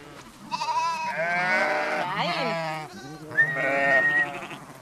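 Several sheep bleat loudly while being herded by dogs to the side, away from the feeding troughs, their wavering cries overlapping in a near-continuous chorus with a brief lull before more bleats rise again.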